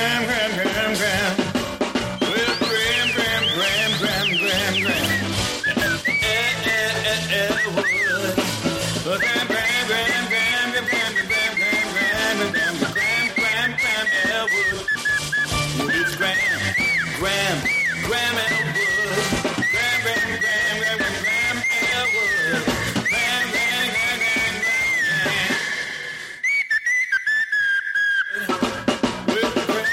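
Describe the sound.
Someone whistles a continuous, wavering tune with sliding pitches on the Todd Glass show, loud, over a dense background of other sound. It keeps going nearly the whole time, with a short break near the end.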